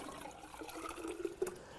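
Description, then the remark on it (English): Water pours steadily into a water bottle, a continuous trickling gurgle that lasts under two seconds with a couple of small splashy blips near the end. “Because you can take the water bottle and you can pour it in,”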